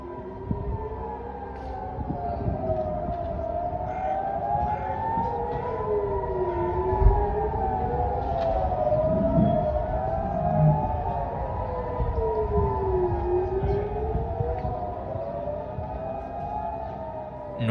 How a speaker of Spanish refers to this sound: el sonido de las sirenas antiaéreas volvió a invadir todo el país.